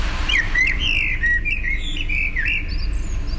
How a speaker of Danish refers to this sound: og så to meter fra mig, der er der en solsort, der sidder og lige er i gang med at fløjte en sang. Og jeg synes, det er så hyggeligt, at den sidder så tæt på.